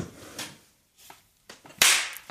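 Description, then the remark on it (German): A sharp, loud slap of two hands meeting in a high five, a single crisp smack standing out after a few softer rustles and taps. “Der Beweis, Moment, der Beweis, wir klatschen uns jetzt ein.”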